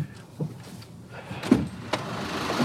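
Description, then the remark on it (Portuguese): A car's starter motor whirs and strains in a low, steady grind, broken by a few sharp clunks, as someone tries for long minutes to start the car on a river ferry, and the engine never catches. Nobody speaks. “Foram alguns longos minutos tentando convencer o carro a voltar à vida.”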